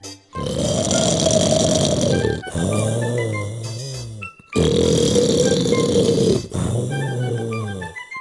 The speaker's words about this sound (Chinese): 魔鬼很快又鼾声大作。